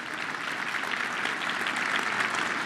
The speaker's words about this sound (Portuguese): Alguém pode aplaudir o Senhor por isso?